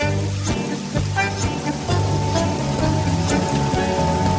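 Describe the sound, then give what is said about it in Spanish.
Steady rain patters down on a pier throughout, a continuous hiss beneath prominent sustained music with low tonal chords. No one speaks. “Los cuatro simuladores caminan por un muelle. Todos están vestidos con tapados largos negros. Llueve.”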